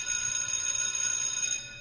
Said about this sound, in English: Every time, every time you hear the bell, I'm getting ready to say something that I think is pertinent, or I'm getting ready to change subjects